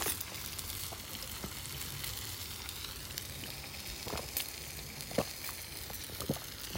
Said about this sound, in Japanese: なのでもうそのまま iPhone で録音ですチーズをこれ焼いて一番下の面がこびりついて皮になったらずらして何枚も皮を作っていくっていうのをやってるんだけど